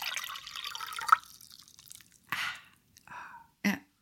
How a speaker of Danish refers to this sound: jeg kan for eksempel lige hælde noget ja. vand op her. Så laver jeg lige noget vand ASMR.